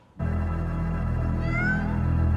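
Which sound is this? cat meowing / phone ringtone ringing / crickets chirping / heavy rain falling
cat meowing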